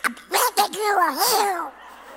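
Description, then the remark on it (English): A short burst of raspy, quacking voices as an audience says "I'm glad you're here" in a Donald Duck voice, buzzy and nasal, lasting about a second and a half before falling silent. “I want you to say, I'm glad you're here, but do it in Donald Duck.”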